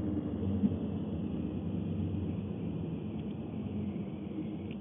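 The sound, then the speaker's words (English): A steady, low road rumble fills the space, as heard from inside a moving car that is slowing down, with constant droning noise throughout and no voices. “sorry, we're just like slowing down, and I'm just like, oh my god, please slow down with we Car behind me because I really, the last thing I need is to get hit.”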